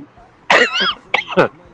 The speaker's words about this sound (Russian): Будь, здоров, не кашляй это самое важное.